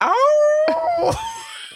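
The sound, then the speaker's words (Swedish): A person imitates a dog's howl: one long, rising, then steady wail, loud, breaking into a few rougher yelps before ending with a short sharp noise. “Då ylar du.”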